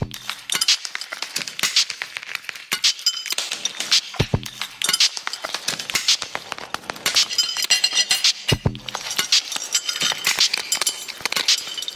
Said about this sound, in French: La grêle qui tombe, par exemple.